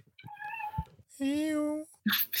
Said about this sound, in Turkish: bir miyav duyuldu uzaklardan.